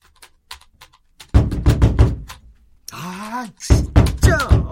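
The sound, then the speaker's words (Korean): Faint taps at first, then a loud run of rapid, forceful knocks on the front door of a home, broken briefly by a voice calling out with a rising-falling tone before the pounding resumes. “종종 잡상인과 종교인들이 그렇게 현관문을 두드리다 돌아갔다.”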